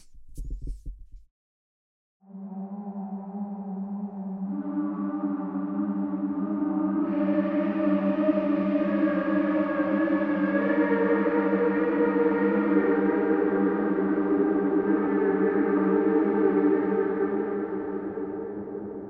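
A synthesizer's Foggy Choir patch swells in after a brief click, sustaining layered vocal-like chords that grow brighter and fuller with airy, shimmering effects, holding steadily for over fifteen seconds with no talking.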